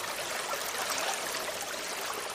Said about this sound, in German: Geht es euch auch so? dass euch dieses sanfte Plätschern beruhigt? Dass eure Gedanken vielleicht zu einem Ort in den Bergen abschweifen, an dem ein kleiner Bach entlang fließt?